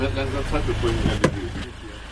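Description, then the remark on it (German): A bus engine rumbles steadily underneath as the bus drives from hangar to hangar around the grounds of the Nordholz barracks in Germany, with a continuous low drone, a brief knock midway, and people talking over the interior noise. “Wir fahren mit einem Bus von Halle zu Halle, sehen die Hubschrauber der Marine, sehen einen Alpha-Jet landen”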